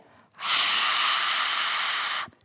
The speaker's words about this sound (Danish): Så forskellen er, at øh, den her lyd, den kan jeg lave, når jeg ikke er på min sangstemme, men jeg er på min talestemme. Så er der sådan nogle hudflapper, der ligger hen over vores øh, stemmebånd, og de kan lyde sådan her.